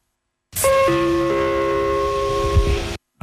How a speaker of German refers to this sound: Auch ein schönes Geräusch. Ich hätte jetzt eigentlich gedacht, das wäre ein längeres, längerer Gong.